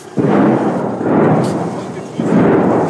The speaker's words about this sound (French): Kherson aujourd'hui, c'est ça. Lorsque nous arrivons dans ce quartier résidentiel, un obus qui siffle.